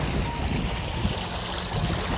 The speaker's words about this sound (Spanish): Continúa con tus ojos cerrados, disfrutando el agua que viene hacia ti. En cada una de las olas se acerca suavemente, sigilosamente